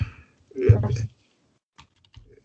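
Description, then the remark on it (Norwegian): Typing on a computer keyboard while searching for a term: a quick, dense flurry of keystrokes, then a pause and a few scattered single taps near the end. “Det har et eller annet begrep som sånn jeg skal prøve å søke opp her.”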